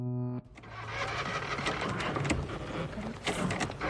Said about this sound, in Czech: Prosím tě, při opakovaném startování nechávej aspoň takové 15-sekundové intervaly nebo vící baterku.